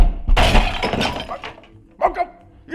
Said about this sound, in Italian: Ha distrutto tutte le statue!